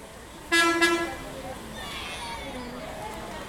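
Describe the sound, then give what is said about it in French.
A short, loud vehicle horn honk rings out, followed by low engine and street rumble as five grey buses with tinted windows pull in and park, with faint voices talking in the background. “cinq bus gris aux vitres fumées se garent.”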